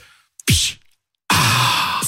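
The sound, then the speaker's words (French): A sparkling water bottle is cracked open: a short sharp hiss, a pause, then a longer, loud, steady fizzing rush, with no talking. “c'est donc le bruit de la bouteille d'eau gazeuse”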